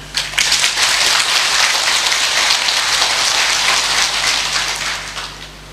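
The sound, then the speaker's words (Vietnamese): A large audience of about 500 people in a hall applauds loudly, a dense, steady wash of many hands clapping that holds for several seconds before tapering off at the end. No one speaks over it. “nếu quý vị thấy là mình đang có tiếp tục có và sẽ làm cái cái cái văn hóa đền ơn cho nền tảng biết ơn này nhiều hơn nữa hãy dâng cao trầm vỗ tay thật lớn”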